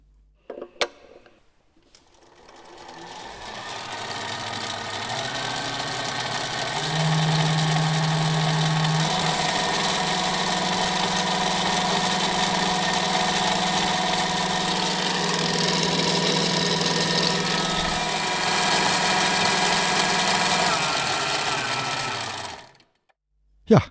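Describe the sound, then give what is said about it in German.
The electric pre-lubrication oil pump of a large diesel engine starts up during preparations for starting the engine, a steady mechanical hum and whir holding a constant droning tone with a faint rattle for about twenty seconds, then cutting off abruptly. The engine has a crankshaft of almost six tonnes in ten bearings. “das ist die Vorölpumpe.”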